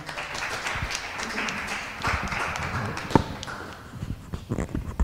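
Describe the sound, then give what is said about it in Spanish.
An audience applauds steadily for several seconds, a dense wash of many hands clapping at an even level, with a few sharper individual claps standing out toward the end. “aplauso, ¿no?”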